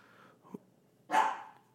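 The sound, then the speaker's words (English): A female dog gives a single loud, sharp bark, preceded by a softer, brief yelp or huff, while being hand-signaled to be quiet. Fairly clear, with no talking. “Andy is hand signaling my dog, trying to get her to be quiet, which I think she will in a little bit.”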